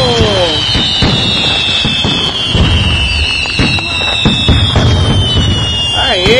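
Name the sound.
fireworks bursting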